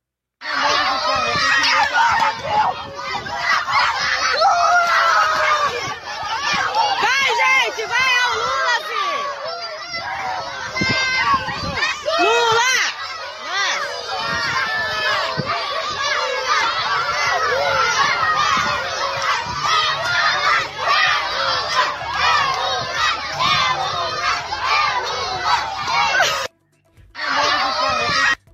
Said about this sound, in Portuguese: arrumaram um padre Kelman fake e a criançada expulsou gritando é Lula